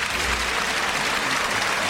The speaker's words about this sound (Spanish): Y la ovación para Julián López Escobar, el Juli, que saluda a la altura de la segunda raya